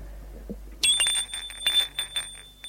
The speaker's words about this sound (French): L'on sonne au portail. Il lui crie Virginie, on a sonné au portail. Elle lui dit du bas Ce n'est pas possible, je n'attends personne.